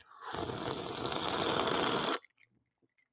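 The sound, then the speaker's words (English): A loud slurp of water as a person drinks, a rough, rapidly sputtering draw lasting about two seconds, then cutting off abruptly into near silence with a few faint clicks. “ASMR slurping”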